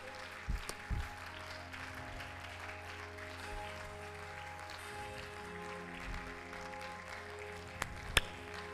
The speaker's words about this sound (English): Clap your hands.